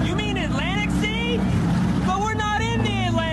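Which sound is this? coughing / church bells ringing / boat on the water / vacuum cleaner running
boat on the water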